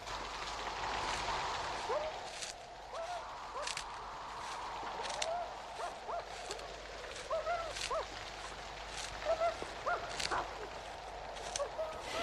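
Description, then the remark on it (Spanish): Steady, dense rainfall hisses throughout under strong gusting wind during a night storm at an old abandoned cemetery on the outskirts of Livorno, with scattered louder splashes and faint whistling or creaking tones cutting through the storm noise. No one speaks. “La tormenta había arreciado cuando bajaron en la avenida de San Benedetto.”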